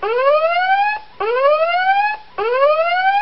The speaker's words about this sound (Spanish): suéneme, la alarma ahí, José, que vamos a hablar con spoilers